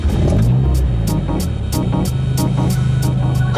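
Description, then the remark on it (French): An Alpine A110's mid-rear-mounted 1.8-litre four-cylinder engine, borrowed from the Mégane RS, accelerating on the road: a loud, steady, throbbing drone whose pitch climbs, with regular crackling pulses about every half second and no voices. “C'est un moteur 4 cylindres 1,8 litre qui est emprunté à la Mégane RS.”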